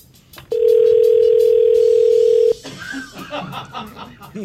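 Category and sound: signal or alarm, telephone line tone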